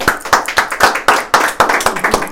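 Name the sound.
audience applauding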